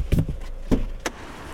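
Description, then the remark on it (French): A few sharp metallic clunks, like a truck door being shut, land in quick succession, with a faint background hum and no clear engine pulling away, as an empty delivery truck driver sets off back to the depot in his truck. “Alors je laisse Victor repartir dans son camion.”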